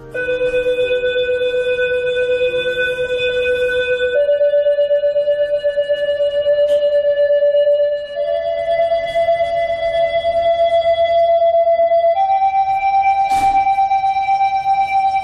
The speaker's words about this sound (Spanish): Lo que vamos a escuchar ahora es el sonido de la alarma urbana veneciana, el sonido que se grabó durante el último mes de noviembre, durante la última gran crecida.